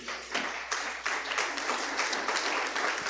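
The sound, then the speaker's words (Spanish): A church audience bursts into sustained, strong applause to God, dense overlapping clapping continuing steadily for a few seconds without pause, fairly loud, with no one speaking over it. “Si tú lo crees, da un aplauso fuerte a Dios”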